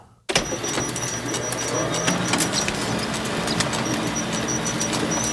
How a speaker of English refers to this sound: A Conveyor belt? I can see all your wheels turning. That is a photocopy machine Oh. Oh, yeah. making Yeah. copies.